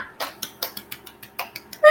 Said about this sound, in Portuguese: Eu vou bater palma de verdade, porque eu não sei editar para acrescentar de mentira.